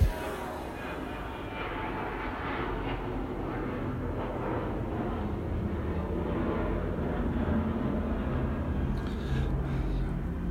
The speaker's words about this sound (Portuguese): Mais um avião.